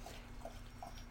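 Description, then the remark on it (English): A dog laps water in the background, a quiet, steady rhythm of wet slurps about every half second, ending with a brief louder knock. “Dog, that's the dog drinking water behind me.”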